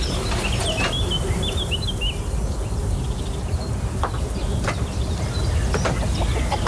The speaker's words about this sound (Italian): E questi che avete appena ascoltato stanno sommando i suoni di una fattoria in Umbria.